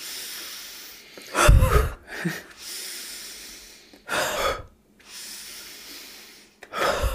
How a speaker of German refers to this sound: Ich werde gleich ohnmächtig. weißt du, wenn man so hyperventiliert. Wie so eine Tüte atmen.